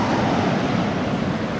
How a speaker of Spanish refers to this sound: El fiordo tenía en aquel lugar una anchura de casi media milla. Las olas se rompían con estrépito en las agudas rocas.